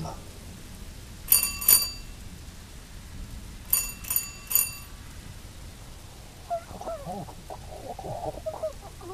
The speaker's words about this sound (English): You rush to the porch, the rain pouring off you. Your clothes are sodden and you are frozen. There is an old fashioned bell twist, and you spin it around, desperate to be inside where it is warm.